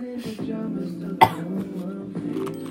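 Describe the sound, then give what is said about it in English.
A single sharp cough cuts in once, brief, standing out above a steady tonal hum that continues underneath. “I only ever cough one time.”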